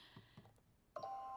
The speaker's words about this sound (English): I'm just gonna let that go off just because. Was that your little positive energy cheat? No, that's the alarm.